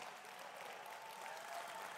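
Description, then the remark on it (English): Quiet, polite golf clap from a crowd, a soft, steady patter of many hands that holds evenly for about two seconds with no voices over it. “Now, don't golf clap the Lord.”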